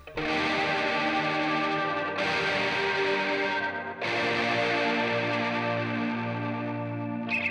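A pop song opens with a loud, full instrumental intro, washed in chorus and distortion effects, with steady sustained chords and a rhythmic pulse underneath, and no vocals yet.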